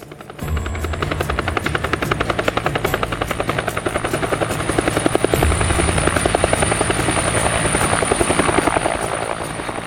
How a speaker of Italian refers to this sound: Per questa ragione in aeroporto arrivò un elicottero che ci portò direttamente alla Cinta d'Olivo, la residenza estiva, dove anche io fui fatto alloggiare.